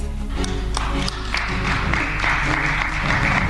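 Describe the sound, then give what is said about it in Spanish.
Steady applause following Tatiana Clouthier's resignation message, dense overlapping claps with a low hum underneath, continuing without a break. “Usted aplaude y no la abraza y, por ejemplo, ella sí lo abraza.”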